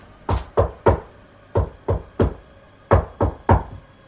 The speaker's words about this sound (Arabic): المهم انا استنيت حوالي عشر دقايق وبعدين رحت لباب المكتب وبدات اخبط عليه بالراحه خبطت كذا مره